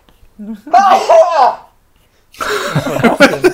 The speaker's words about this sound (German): Gesundheit? War das ein Nieser? Ja, ich musste niesen.